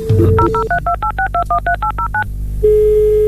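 A steady dial tone gives way to a quick run of about a dozen two-pitch keypad beeps, evenly spaced and crisp, before a single steady tone returns. No one speaks.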